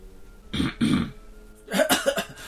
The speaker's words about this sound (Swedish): han harklar sig eh, lite som att han, in, inte han vill inte säga nej. nej. För det vore oartigt mm. och oförskämt. Men han vill inte heller hålla med dig.